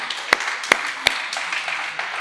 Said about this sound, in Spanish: Ok. Si, es el aplauso para el Señor, eso es muy poquito.